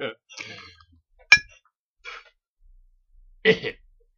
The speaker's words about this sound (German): so, wir haben jetzt beide in Emdys Tasse gehustet. Also Emdy schön desinfiziert vorher.